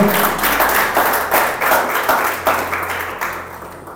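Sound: audience applauding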